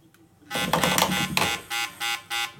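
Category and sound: signal or alarm, smoke detector alarm sounding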